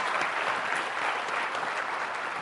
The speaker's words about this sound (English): The bad precedents are going to come back up uh, as our ticket crew takes the stage, but let's give a round of applause to representatives Mayor Turner and Ross Ramsey.